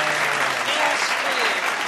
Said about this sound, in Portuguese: Palmas, palmas para esse brilhante cineasta. Palmas, por favor.